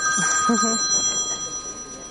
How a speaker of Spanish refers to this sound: Así que son las nueve. la hora que medito todas las noches. El, móvil está en silencio, pero la alarma me dice, toca meditar.